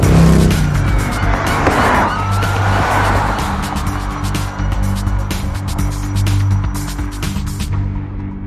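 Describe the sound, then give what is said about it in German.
A loud vehicle chase as two men flee police officers on a motorcycle from a parking lot: engines roar continuously while tires screech in sweeping bursts, with sharp rattling impacts and a faint siren-like wail mixed into the chaotic noise. “Sie steigen auf ihr Motorrad und es beginnt eine wilde Verfolgungsjagd.”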